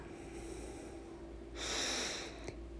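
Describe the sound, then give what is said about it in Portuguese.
A single slow, airy breath taken in and released during a guided breathing exercise, lasting about a second, then fading back to a quiet, steady background hum. No one speaks. “E assim aos poucos, você vai novamente fazendo um foco em tua respiração Inspire, solta.”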